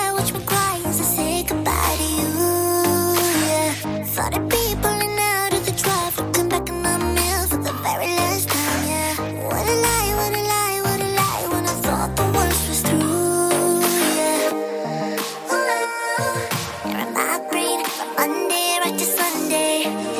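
A dense, heavily produced hyperpop track with vocoder-treated vocals plays loud and steady throughout, stacked synths filling the mix, the low end briefly dropping out near the end.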